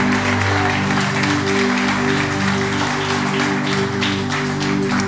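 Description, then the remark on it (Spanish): Sustained audience applause, a dense steady wash of clapping at full volume with no pauses, layered over a low sustained musical hum underneath. “Se aplauso.”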